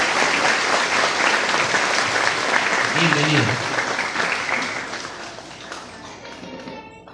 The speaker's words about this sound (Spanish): Regalémosle un fuerte aplauso al señor presidente municipal, por favor.